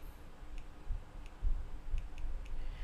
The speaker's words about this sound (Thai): เปิดเครื่องคิดเลขอืมเปิดคือขออนุญาตต้องเปิดเครื่องคิดเลขครับ